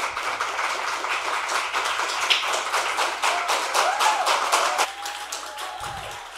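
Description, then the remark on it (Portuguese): Sustained applause from a crowd fills a legislative chamber (Câmara Legislativa) with dense, steady clapping after a vote is approved 10 to 1, while faint raised voices or whistles rise briefly above it before the clapping thins out near the end. “Aplauso sim, mas Gritaria não é uma casa de lei onde todos devem manter o respeito.”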